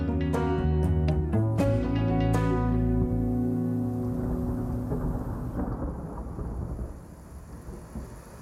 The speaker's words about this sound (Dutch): Op dinsdag 13 en woensdag 14 juli 2021 valt er in Limburg een uitzonderlijke hoeveelheid regen Ruim twee keer zoveel als er normaal in deze maand valt. Heel veel regen. Dat valt niet alleen in Limburg, maar ook in België en Duitsland.